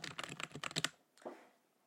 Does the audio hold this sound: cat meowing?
no